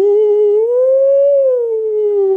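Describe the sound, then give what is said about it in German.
A voice imitates a theremin with a single sustained, wavering tone that glides slowly up and back down in pitch, steady and loud for about two and a half seconds. “auf der linken Seite so eine Antenne, die nach oben geht. Und du kannst mit den Händen in der Luft Musik erzeugen.”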